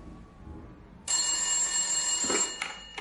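household object, telephone ringing

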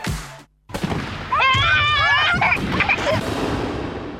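sound effect, fireworks exploding

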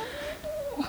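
human body sound, stomach growling from hunger

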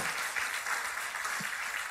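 crowd, audience applauding loudly

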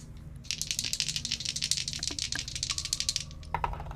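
household object, dice rolling

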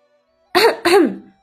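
human body sound, throat clearing

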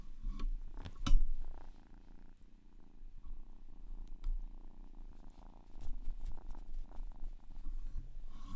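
animal, cat purring

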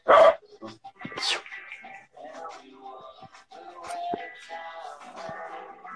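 animal, dogs barking and whimpering

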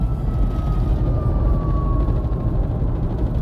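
vehicle, emergency vehicle siren passing

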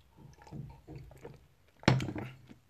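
food or drink, drinking water

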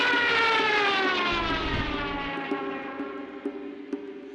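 vehicle, airplane flying overhead

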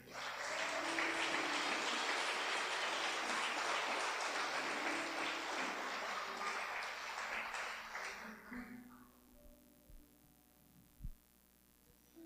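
crowd, audience applauding

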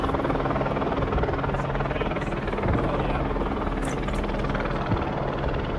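vehicle, helicopter flying overhead

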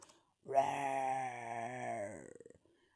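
sound effect, growl

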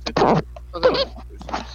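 human body sound, fart

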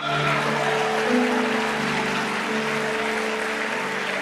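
crowd, audience applauding

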